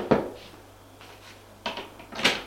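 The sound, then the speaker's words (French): A few sharp wooden knocks on a door, spaced irregularly with pauses between them, moderately loud against a quiet background with no talking. “On frappe à la porte.”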